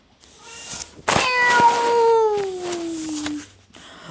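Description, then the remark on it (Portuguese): A kitten lets out one long, loud, drawn-out meow, its pitch sliding downward as it trails off, with only faint background noise around it. “O bichão disparou o miar mais alto do que nunca.”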